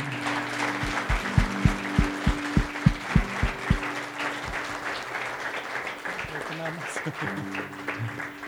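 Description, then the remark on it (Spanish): Applause for Jesus Christ from a crowd, dense steady clapping with a run of rhythmic low thumps in the first half, then settling into a continuous wash of claps that gradually thins out. “En el nombre de Jesús, un aplauso para Jesucristo nuestro Señor.”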